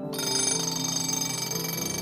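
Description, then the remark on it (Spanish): A loud electronic alarm clock tone rings continuously, a bright layered melodic ringtone that starts abruptly and keeps sounding steadily with no voices. “No, no estoy hablando del timbre de tu despertador.”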